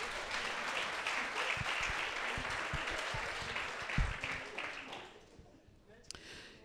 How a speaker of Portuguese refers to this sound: Vamos dar uma salva de palmas ao Senhor.